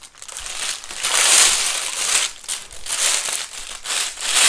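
Plastic crinkles and rustles steadily as a new bin bag is fitted into a trash can, a bright, crackly texture swelling in several loud waves with no talking.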